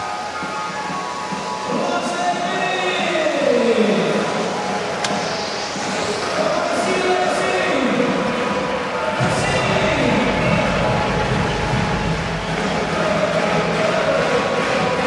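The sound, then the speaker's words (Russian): Hockey fans in the stands, during the third period of a match with Russia's national team leading 2-0, make a steady, loud crowd roar, with rising and falling chant-like tones sweeping through it for the full fifteen seconds. “развлекаются болельщики на трибунах, э, веселятся.”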